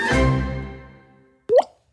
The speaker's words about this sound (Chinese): 这是落泪的声音，也是心淌血的声音，也是尿失禁的声音。